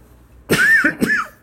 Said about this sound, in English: I coughed